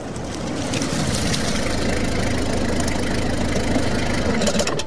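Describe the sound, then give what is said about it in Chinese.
A light gray 130 small truck drives up, its engine rumbling steadily, a low continuous drone that gains a firmer humming tone partway through and holds at a fairly loud, even level, with no voices. “这时，一辆浅灰色的幺三零小卡车开了过来”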